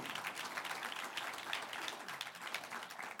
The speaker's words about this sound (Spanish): Un aplauso de victoria al Señor.